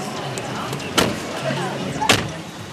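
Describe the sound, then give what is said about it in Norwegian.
Two solid car door slams about a second apart as people get back into a car in Los Angeles in the evening, with faint murmuring voices and rustling in between. “Vi hopper i bilen igjen.”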